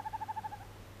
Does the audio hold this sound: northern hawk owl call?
yes